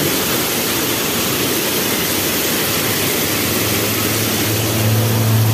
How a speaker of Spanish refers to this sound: Mira cómo se reventó ese tubo aquí y se está inundando todo ese edificio aquí en, en los altos. Mira cómo sale el agua a chorro.